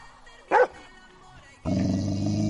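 A single sharp dog bark rings out, then after a short pause a louder, sustained dog growl-bark sound kicks in and carries on steadily to the end.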